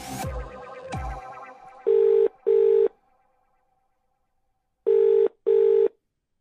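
A telephone rings twice in the classic double-burst pattern, loud and clear with a pause between pairs, preceded by a couple of sharp clattering knocks. No one speaks.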